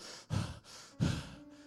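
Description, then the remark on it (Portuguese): Two deep, airy breaths, each lasting about a third of a second with a short pause between, breathy and fairly loud with no talking. “essa respiração, esse fôlego de vida.”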